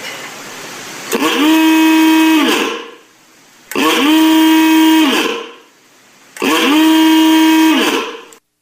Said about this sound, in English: So there you go. An Ooga horn. I mean, just a creative idea.